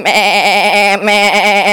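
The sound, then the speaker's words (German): A person imitates a sheep's bleat with a loud, wavering, nasal voice, two sustained quavering bleats with a brief break between them, alone with no other talk. “Und ein Taubegeräusch ist mehr so, ne? aber Schaf ist mehr so,”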